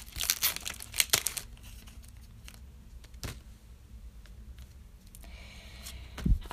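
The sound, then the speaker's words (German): Crisp crinkling and tearing of a foil trading card pack being opened, with sharp bursts early on, scattered rustles through the middle and a final crackle near the end, no voices. “Das letzte Pack, das ist irgendwie voll scheiße angeschweißt, Leute.”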